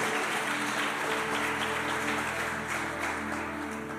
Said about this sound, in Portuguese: Dá uma salva de palmas para Deus.